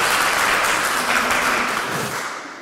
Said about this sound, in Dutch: En een groot applaus van de aanwezige mensen.